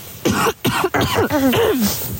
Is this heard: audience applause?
no